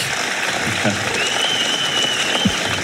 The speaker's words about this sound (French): Ils sont à côté, euh, Tadej Pogacar et euh, Adam Yates qui sont applaudis par le public.